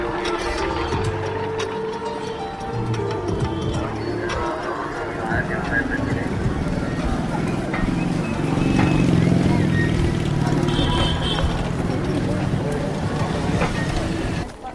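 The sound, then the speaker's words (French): A crowd walking around a stupa, turning prayer wheels: a steady wash of murmuring voices and shuffling, with scattered knocks and rattles running under it, fairly loud throughout. “Alors là, nous faisons le tour du stupa au milieu des, des gens qui actionnent les moulins à prière.”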